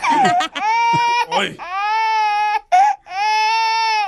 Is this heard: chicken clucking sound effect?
no